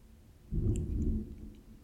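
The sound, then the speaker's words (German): A deep, loud, low rumble of thunder following a lightning flash swells in abruptly, rolls heavily for under a second, then fades back into a quiet background hum. There is no talking. “Oh, dann ist halt ein bisschen Donner drin.”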